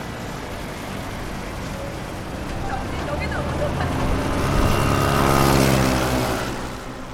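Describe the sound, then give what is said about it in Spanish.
Several motorcycle engines rev as motorcyclists race off at full speed when traffic is restored after a lifting bridge is lowered, their rising whine swelling to a loud peak past the middle before easing off, amid busy street traffic noise. “Apenas suena el anuncio de que se ha restablecido el tráfico, los motociclistas salen a toda velocidad, haciendo rugir los motores como en una carrera.”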